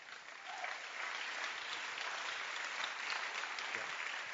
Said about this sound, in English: Uh, clap your hands for the Bible.